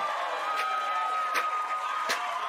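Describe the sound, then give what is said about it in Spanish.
A recorded applause sound effect: a steady wash of crowd applause, a dense continuous patter of many hands clapping at moderate loudness, with a few sharper claps popping out over the roar and no voices. “El aplauso bueno es este.”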